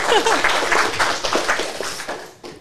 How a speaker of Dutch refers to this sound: Maar ik krijg wel applaus.